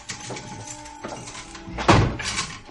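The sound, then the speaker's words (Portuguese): A heavy metal jail cell door is opened by a jailer, scraping and rattling open with a squealing hinge, then slams shut with a loud clang near the end, reverberating. “Abra a cela, carcereiro!”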